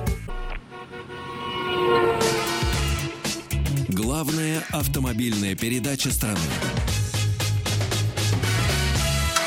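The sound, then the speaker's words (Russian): A short radio station jingle: bright layered music with horn-like toots and vehicle sound effects, with a voice announcing a slogan over it, loud and busy throughout. “Мы вас прервали, извините, вот нашим джинглом.”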